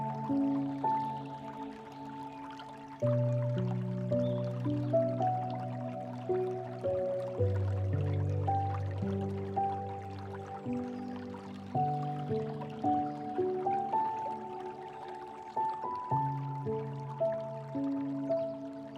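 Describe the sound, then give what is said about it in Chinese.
Rain with scattered dripping, blended with soft, sustained tonal chords that shift slowly; steady and gentle throughout, with no voices. “听听那雨声”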